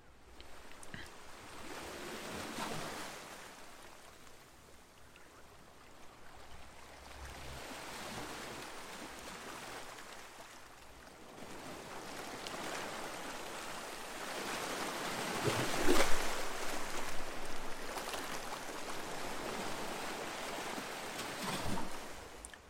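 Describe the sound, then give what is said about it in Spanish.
Sea waves, recorded at the beach on a Sunday with a microphone, wash steadily onto the shore, a broad rushing surf with swells that rise and fall, growing louder in a stronger surge near the middle before settling back. No voices. “Y a ver qué os parece el mar que grabé ya no fue el sábado sino el domingo.”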